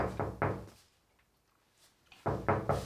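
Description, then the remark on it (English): Knocking on a car window while someone sits inside the car: a quick set of three raps, a brief pause, then another three, fairly loud, with no talking. “Next thing I know, all I hear is this.”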